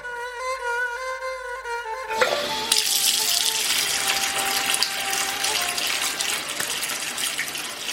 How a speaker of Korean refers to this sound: 나는 머뭇거리다가 수도를 틀어 아버지가 그랬던 것처럼 손을 씻었다.